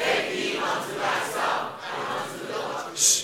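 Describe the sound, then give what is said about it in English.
A large group of voices reads a scripture verse aloud together in unison from a screen, a dense, blended chorus of speech rising and falling in steady phrases, loud and reverberant. “Let's all read it from the screen, please.”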